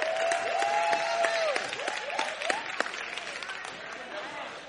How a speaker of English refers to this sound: Come on, y'all ought to give a better clap than for that. Woo.